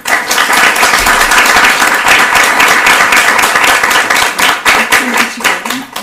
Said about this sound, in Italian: Un caldo applauso.